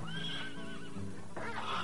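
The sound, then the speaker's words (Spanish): A horse gives a loud whinny, its wavering cry rising and falling over about two seconds, with a faint clatter of hooves underneath and no talking. “marchó una noche, con tan mala suerte que su caballo tropezó con un tronco y él salió despedido.”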